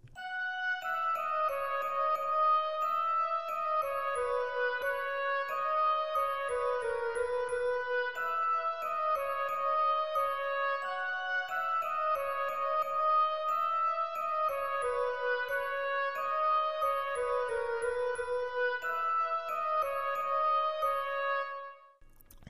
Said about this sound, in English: I think the Glockenspiel at this point sounds really great. Um, it really gives the entire piece a different kind of mood, and it really goes great with the with the with the oboe there.